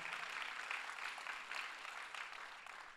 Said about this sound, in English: Come on, clap Zoe and thank God.